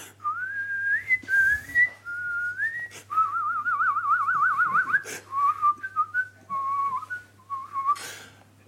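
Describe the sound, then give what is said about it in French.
A melody whistled alone in a formal, operatic style by an opera's official whistler in front of a microphone during a recording session: clear sustained notes gliding between pitches, with a rapid warbling trill midway, over a faint steady low hum. “est arrivé le siffleur officiel de l'opéra”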